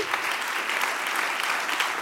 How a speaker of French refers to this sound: Là, il va falloir, là, on va applaudir. Là, ça va pas s'arrêter d'applaudir.